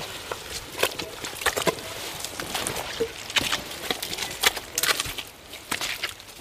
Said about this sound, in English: Typical sound of anchor Island is the squelching of your boots.